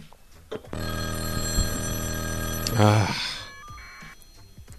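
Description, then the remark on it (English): A loud, harmonically rich telephone bell rings steadily for about two seconds as a caller from west of the Rockies calls in, then breaks into a brief rattling burst before fading, with faint voices in the background. “thing is so loud. Oh, oh my God. We got west of the Rockies calling in.”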